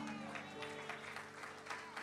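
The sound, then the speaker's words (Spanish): An audience applauds for the Lord in a steady wash of clapping that swells in rhythmic pulses roughly every half second, over a sustained low, droning musical tone. “Vamos a si ese aplauso es para el Señor, tiene que ser mejor.”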